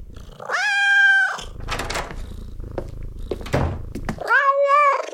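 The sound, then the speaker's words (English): A cat, Oliver, meows twice, long drawn-out calls, with soft rustling and a low steady rumble like purring between them. No one speaks. “Yeah, I can't speak cat, actually.”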